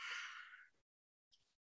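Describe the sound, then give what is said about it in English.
A person yawns with a long, breathy drawn-out sound that fades away, followed after a brief pause by a short, soft exhale. Fairly quiet, with no talking. “I gave you a signal to talk over my yawn.”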